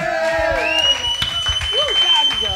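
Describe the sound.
An audience applauds a correct answer in a French-language quiz, with scattered claps, whoops, whistles and excited voices from the crowd, fairly loud and lively throughout.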